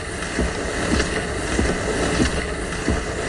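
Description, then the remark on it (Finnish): Rhythmic swishing of skis and poles over snow, a sound effect played live on a keyboard instrument over a sports broadcast in the right rhythm: regular soft strokes roughly every half second over a constant airy hiss, moderately loud, with no voices. “savvojen ja suksien ääniä, näitä hiihtoääniä”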